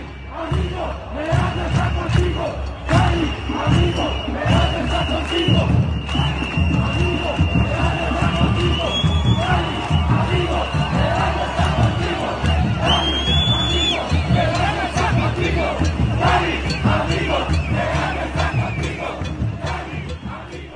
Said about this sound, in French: Des préfectures et des parlements régionaux ont été attaqués, comme à Pereja, la foule hurlant Cali, ami, Pereja est avec toi.